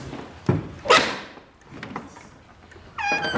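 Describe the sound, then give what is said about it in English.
The door of a horn house is pushed open with two solid thumps in quick succession, followed by quieter rustling and a bright, tonal squeal near the end. “Well, you can open the door. All you gotta do is push on it.”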